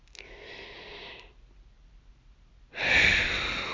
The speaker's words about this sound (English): Let's try that. Inhale.